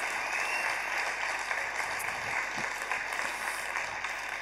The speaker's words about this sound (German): Vielen Dank fürs Erzählen. Das ist dein Applaus.